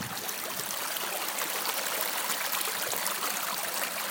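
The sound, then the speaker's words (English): Water rushes steadily through a small old concrete and stone irrigation canal near the mountain town of Antequera, a continuous burble and splash with constant loudness and no pauses, no voices over it. “Here's a stream. Well, it's not a stream, it's a little canal. You can hear it.”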